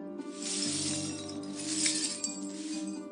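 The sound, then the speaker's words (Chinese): Broken car-window glass shards being swept up and collected: a steady, gritty scraping hiss with light scattered clinks, running continuously over a low droning hum, with no voices. “耳边传来清扫玻璃碎片的声音。”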